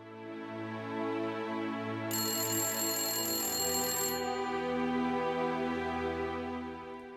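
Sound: telephone ringing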